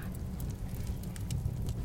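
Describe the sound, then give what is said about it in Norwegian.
Wood crackles inside a tiled stove heating the fireplace room of a cabin, with scattered sharp pops and snaps over a soft, steady low rumble, fairly quiet, with no one talking. “Og så er det den knitrende kakkelovnen i peisstua som gjør varme på hytta.”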